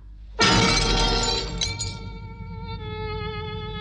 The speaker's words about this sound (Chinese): 但他却对自己的爱情绝望了，把水晶鞋扔出城外